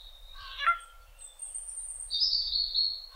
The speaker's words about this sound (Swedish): De varvar något slags litet lockläte som är lite mjukare än det här skränet då, som är det typiska.